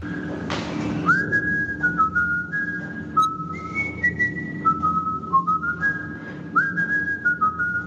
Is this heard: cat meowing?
no